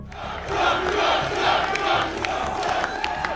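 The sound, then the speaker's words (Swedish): A large crowd in Iowa, USA, cheers and roars steadily for Donald Trump after his win in the Republican nomination vote, a dense wash of voices with scattered shouts and whistles rising above it, loud throughout with no clear speech. “Han fick över hälften av rösterna och det var en nöjd Trump som tog emot folkets jubel.”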